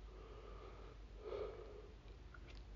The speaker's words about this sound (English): Too many yawns.